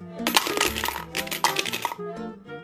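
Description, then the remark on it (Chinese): The last few coins rattle and clink as they are shaken out of a piggy bank in two quick bursts of bright metallic jingling, with a soft, steady musical tone running underneath. “啊，怎么就剩这几个硬币了？”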